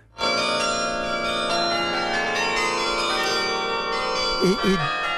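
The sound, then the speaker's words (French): Large carillon bells ring out together in a dense, sustained wash of overlapping metallic tones, loud and resonant, with a brief voice murmuring near the end. The carillon has 70 bells, is Europe's largest, and hangs in the Yolande tower of the Sainte-Chapelle in Chambéry, France. “Aujourd'hui, c'est le plus important carillon d'Europe. 70 cloches, le huitième plus important du monde.”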